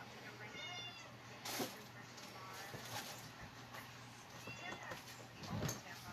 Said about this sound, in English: Uh, there's an annoying cat that always goes with me to all my lives. Y'all don't pay attention to the cat. She always nags.